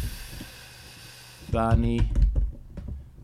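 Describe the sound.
Quick, light keyboard typing of a web search clatters, with a steady hiss in the background; after about a second and a half a man starts talking over it.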